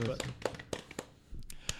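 A brief, scattered round of applause: a handful of sharp, crisp hand claps at an uneven rhythm, lasting under two seconds before fading out.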